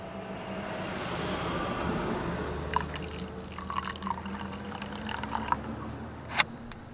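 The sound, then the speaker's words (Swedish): Steady low rumble of traffic at a rest stop along the E4 highway between Jönköping and Värnamo in Sweden, with a faint droning hum underneath and scattered small clicks and taps in the second half. No one speaks. “Vi sitter faktiskt på en rastplats utmed E4 mellan Jönköping och Värnamo”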